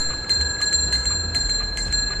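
A bicycle bell rings clearly, as it sounds on Earth, struck several times in a quick, slightly uneven series, its bright metallic tone shimmering on between strikes. No one speaks.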